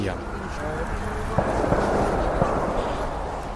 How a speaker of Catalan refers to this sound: De fons se senten trets.